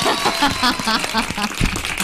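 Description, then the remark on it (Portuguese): A dense, steady patter of applause fills the whole two seconds, with voices talking and calling out over the clapping. “Por isso que ele entrou Palmas sorrindo aí.”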